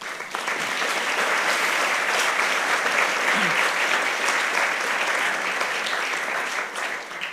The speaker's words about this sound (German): Wir stoßen hoffentlich gleich nochmal darauf an, aber jetzt gern einmal Applaus für DTV.